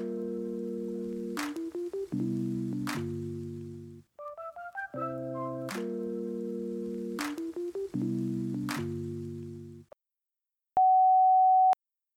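A short synth melody with percussive hits plays, then after a brief silence a single loud, steady fire alarm beep sounds for about a second, piercing.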